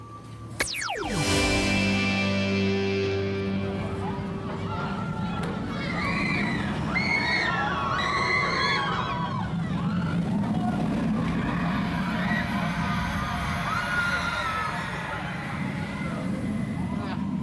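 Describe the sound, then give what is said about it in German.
A roller coaster roars past in a quick descending whoosh, followed by riders' screams rising over a constant murmur of a bustling amusement park crowd. “Wie ihr hört, stehen wir jetzt gerade beim Flug der Dämonen”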